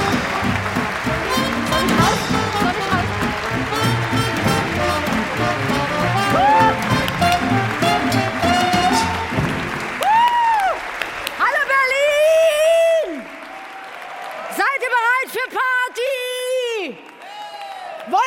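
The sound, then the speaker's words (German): Loud, dense applause from a large audience welcoming cabaret performer Simone Solger fills the first half, then thins as high whoops and cheering voices rise over scattered clapping. “Einen fantastischen Applaus für Simone Solger.”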